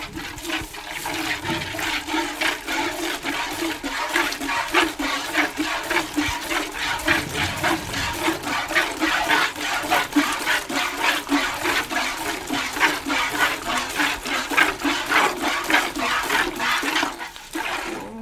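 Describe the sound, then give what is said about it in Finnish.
Milk squirting from a cow into a bucket during milking, a steady, rhythmic hiss, regular spurts repeating about twice a second for the whole recording, with no talking. “Minulle kyllä oli tuttu siis ää, ää, ääni, tota, lypsämisen ääni.”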